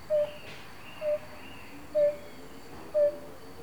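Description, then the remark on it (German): Four soft, mellow 'oop' calls of a European fire-bellied toad, evenly spaced about one second apart, each a short hollow tone heard alone over a quiet outdoor background. “Doch wer steckt hinter diesen Lauten? Es ist nicht etwa ein Vogel, sondern die Rotbauchunke.”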